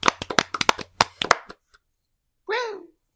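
A quick burst of clapping, about a dozen sharp claps in an uneven patter, stops after a second and a half; a short vocal exclamation with a falling pitch follows.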